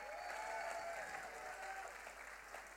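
An audience applauds steadily, with dense, continuous clapping mixed with high whoops and cheers that ring out over it, holding a fairly even loudness throughout.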